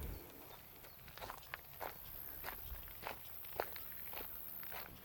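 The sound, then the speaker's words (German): Footsteps crunch along a gravel path during a hike at a steady walking pace, each step a short, gritty scrape, with no voices over them. “Wie du hörst, ist es ein schöner Schotterweg.”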